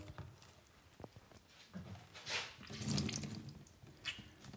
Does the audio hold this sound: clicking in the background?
no